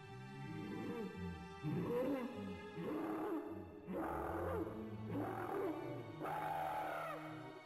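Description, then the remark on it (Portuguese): Loud, guttural growls from a running, monstrous orc-like creature, coming in about five rough, snarling bursts one after another, continuous with no talking. “Você ouve som de, de orc correndo.”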